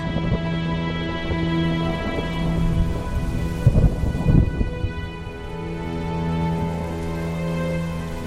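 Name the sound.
rain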